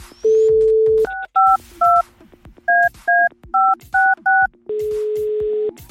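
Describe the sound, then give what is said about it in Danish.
A steady telephone dial tone gives way to a quick series of two-pitch keypad beeps as a number is punched in to place a call, then the tone returns. Clear, with no voices. “Så den person ringer vi op til nu.”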